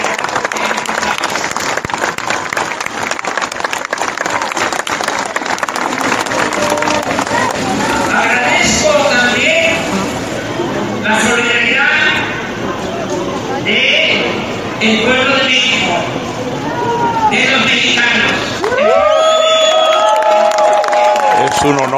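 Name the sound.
crowd shouting and cheering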